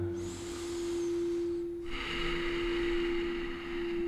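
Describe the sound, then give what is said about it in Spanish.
A slow, deep belly breath drawn in and then let out through the nose during a guided relaxation exercise, two soft airy rushes over a steady low background hum, with no talking. “Vas a inspirar por la nariz y expirar por la nariz. Otra respiración profunda, siempre inflando la panza.”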